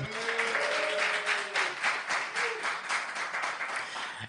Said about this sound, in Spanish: Es que aquí en un directo ahí pues tenemos público. Un aplauso, un aplauso, venga.